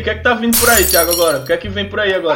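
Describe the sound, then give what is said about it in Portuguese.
A sudden, brief, loud crash of pots and pans clanging together, cutting through a man's excited, continuous talking. “Essa um barulheiro da porta tudo quebrando não, aqui as panelas.”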